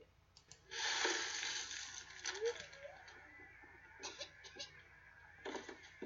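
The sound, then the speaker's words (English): A cat hacks and retches while bringing up a hairball: a loud, raspy burst of harsh gagging followed by several shorter, quieter heaves, with no talking. “Girls ever hear that cough before? No, it's not Sounds a baby like cough. Airball. ball.”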